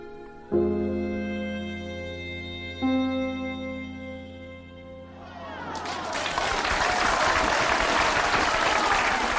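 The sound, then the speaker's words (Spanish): A few sustained musical chords ring out, then a large crowd bursts into a loud, thunderous ovation after a speech, swelling and continuing steadily to the end. “Una ovación clamorosa subrayó las últimas palabras del señor Tirón”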